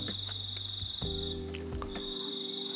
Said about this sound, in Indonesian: dan gue bikinnya malam asik ya sambil ngedengerin suara jangkrik anginnya sepoi-sepoi suasananya pedesaan